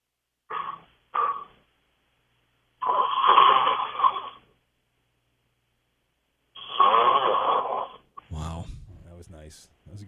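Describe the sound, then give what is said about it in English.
A man, a radio caller from Arlington, snores over a tinny phone line: two short snorts, then two long, rasping snores separated by quiet pauses. A person starts talking right after. “Yeah, he's he's snoozing pretty good.”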